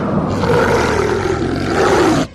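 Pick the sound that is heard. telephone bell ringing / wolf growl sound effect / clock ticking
wolf growl sound effect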